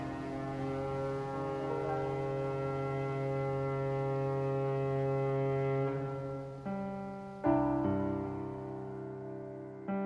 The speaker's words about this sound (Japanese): 遠くの仲間に語りかけるクジラのようにもう一度汽笛が鳴った